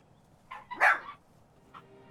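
A dog barks a few times in the background: a soft yip, then one loud sharp bark, and a smaller bark after a pause, with no one talking over it.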